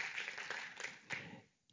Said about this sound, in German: Aber wenn du weißt, dass Jesus schon großartige Dinge gemacht hat in deinem Leben, nochmal Applaus für Jesus.